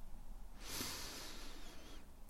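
A slow, steady inhale through the nose during a calm guided breathing exercise, soft, rising into a breathy hiss that lasts about a second and a half before fading out. No talking.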